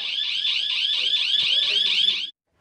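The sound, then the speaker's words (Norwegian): A building's security alarm gives a loud, piercing electronic warble in rapid, continuous repeating pulses, then cuts off abruptly after about two seconds, leaving silence. “I'm sorry for the alarm, but I will put you in a place.”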